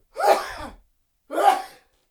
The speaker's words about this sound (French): Et il éternua deux fois encore.